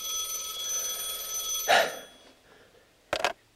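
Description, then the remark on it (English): A telephone rings with a steady, shrill electronic trill for under two seconds, followed by a couple of short, sharp clattering bursts. No one speaks. “Always a ringing phone.”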